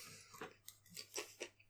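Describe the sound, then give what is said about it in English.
Crisp, crunchy chewing of a potato chip, four or five quick bites in an uneven rhythm, fairly quiet with no talking over it. “Now I hear you chewing because you didn't finish your potato chip before we started?”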